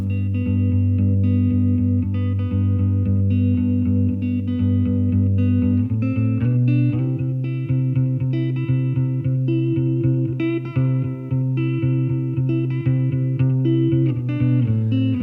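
A rock song with distorted electric guitar plays loud and continuous, opening with sustained chords before the full band kicks in with a driving beat a few seconds later.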